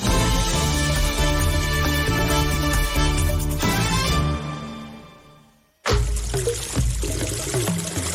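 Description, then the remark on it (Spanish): Water pours loudly from a running tap, thins out and stops briefly after a few seconds, then gushes again in a steady, broad stream. No one speaks. “Cierra el grifo. No dejes escapar ni una sola gota de agua.”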